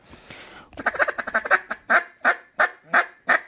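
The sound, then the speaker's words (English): A poured resin duck call, with acoustics very similar to wood but a little deader sounding, blown in a quick, chattering run of short quacks, then five louder, longer raspy quacks spaced evenly apart, with no talking. “It's it's a poured resin, and it it's got the very very similar acoustics to wood.”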